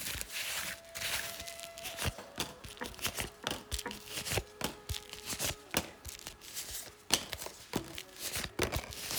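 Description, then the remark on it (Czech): Rustling and crisp slapping of tarot cards being shuffled and laid out for a reading, an irregular run of sharp flicks and soft crinkles with a faint steady tone in the background and no talking. “Já vám udělám takový výklad, tak moment.”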